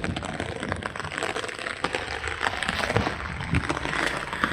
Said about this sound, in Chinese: 就是这种感觉了，就一直想着的下雨的感觉，就是这种感觉。一就是这，我感觉就是安庆的冬天下雨就是这样，就。它不光下雨，它一下就是好长好长时间，